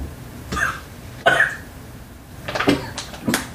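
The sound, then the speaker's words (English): A person coughs hard after drinking, several times in quick, uneven bursts, with raspy throat-clearing between the coughs and no talking. “I think I coughed up a tonsil.”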